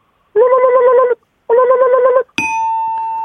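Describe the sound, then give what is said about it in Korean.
A voice imitates an old landline telephone ringing: two loud, buzzy, trilling rings with a short pause between them, followed by a bright, sustained ding-like tone. “네, 마지막, 그 옛날 그 유선 전화기 벨소리요.”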